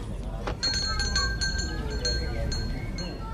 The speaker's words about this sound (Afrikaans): En daarna's 'n blomwinkel. Een glas en wit en groen met 'n voordeur wat 'n klokkie laat lui as 'n mens daar binne kom.